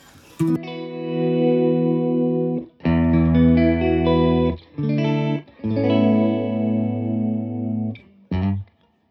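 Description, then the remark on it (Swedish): An electric guitar played through a flanger, with a sweeping, whooshing shimmer on several loud sustained chords separated by short pauses, ending in two brief stabs. No one speaks. “Och flanger, det är väl egentligen att det är två svävningar mot en torr signal, typ, Exakt.”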